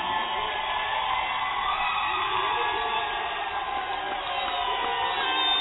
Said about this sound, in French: J'aimerais que tu pousses les cris de joie et que tu acclames le Seigneur